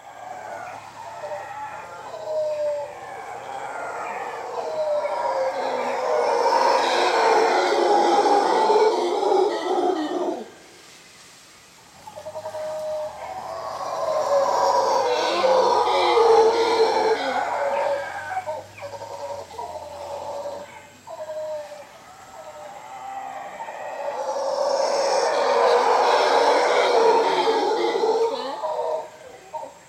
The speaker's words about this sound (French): Euh, ça devrait être obligatoire pour chacun d'entendre ça une fois dans sa vie. C'est absolument magnifique, quoi. Allez, ça nous fait plaisir. Voici le cri d'un singe hurleur.